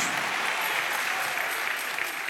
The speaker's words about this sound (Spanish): Démosle un aplauso al Señor, a su nombre, gloria.